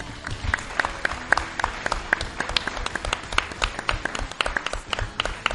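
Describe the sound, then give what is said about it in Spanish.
An audience applauds steadily, many overlapping claps forming a dense, crackling wash with a few sharper individual claps standing out, holding at a moderate level throughout without voices. “Y un fuerte aplauso para ellos también.”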